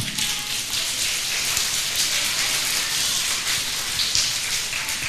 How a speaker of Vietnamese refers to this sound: giơ tay lên quá giỏi cho một chào vỗ tay thật lớn nào